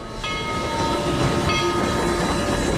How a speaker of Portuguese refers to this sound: De trem, ele percorreu o caminho até um canteiro de obras.